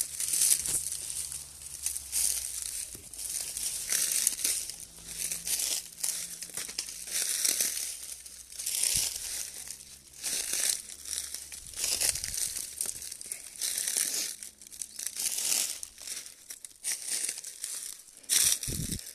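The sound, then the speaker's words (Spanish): Continuous rustling and crackling of leaves and twigs as someone pushes through the soft, flexible branches of young, bush-like trees that bend as they pass, with irregular bursts of crinkly noise over about twenty seconds and no voices. “todas las ramas de los árboles más jóvenes que nos rodean como arbustos son suaves y flexibles. Y al pasar se doblan permitiéndonos entrar sin esfuerzo.”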